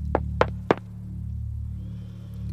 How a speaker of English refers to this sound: gives the brass door knocker three loud taps